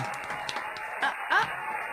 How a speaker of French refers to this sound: Ça marche, on entend effectivement des applaudissements.